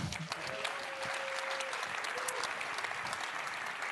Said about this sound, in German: dieser Applaus ist für mich stellvertretend für die vielen Menschen, die ihre Zeit und ihre Kraft neben ihrem Geld investieren in Prävention, was man nicht messen kann.